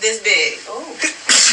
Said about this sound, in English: Bless you.